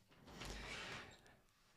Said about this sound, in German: Leonie macht die Tür leise zu.